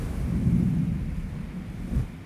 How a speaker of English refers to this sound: And then you can also hear this faint echo. And that faint echo is the glacier slowly melting. It's not a drip, drip, drip, but it's an echo as if there's some sort of movement taking place.